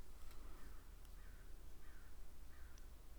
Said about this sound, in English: Now there's a crow outside.